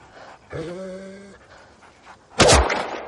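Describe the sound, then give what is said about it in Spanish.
An injured dog lying on the ground, bleeding from its belly, gives a drawn-out strained whine, then a short loud harsh gasp of panting, with quiet background between. “El perro sangra por el vientre tirado en el suelo.”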